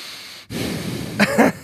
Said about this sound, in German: Ich atme äh, direkt rein mit der Nase.